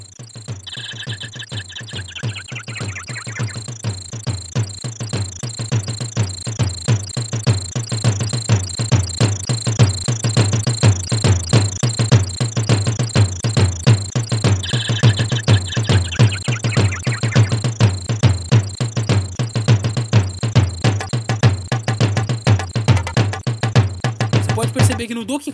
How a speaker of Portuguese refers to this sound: Vou colocar um pouquinho do Donkey Kong para você ouvir.